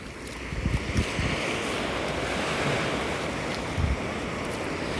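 Ocean waves break at dawn in a steady, rushing wash of surf, with a couple of deeper thuds as swells hit, and wind noise buffeting the microphone throughout. No one speaks.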